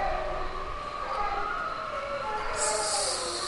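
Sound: ambulance siren passing outside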